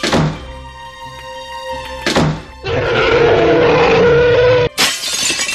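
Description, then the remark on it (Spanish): A sound effect of a Tyrannosaurus rex barging through a door in a studio: two heavy booming thuds, then a long, loud, rough roaring crash and a final noisy burst, with no talking. “de la misma forma que sé que dentro de tres segundos entrará por esa puerta un tiranosaurio rex que se sentará encima de esa mesa de cristal y la va a hacer añicos.”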